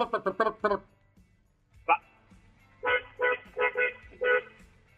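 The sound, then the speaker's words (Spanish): A car horn honks in a quick burst of four short toots, then after a pause sounds again in five slightly longer honks, loud. “¿Te hace eh, falta práctica con el claxon?”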